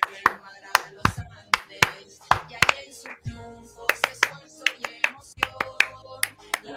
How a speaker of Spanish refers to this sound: Aplaudan como cueca.